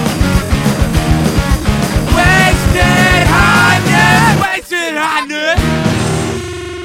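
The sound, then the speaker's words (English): A recorded song plays loudly with a steady driving beat and strained, shouted-sounding vocals over it, briefly dropping out near the end before the music kicks back in. “Can we hear the song?”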